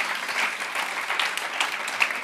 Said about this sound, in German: mal einen riesen, riesen Applaus.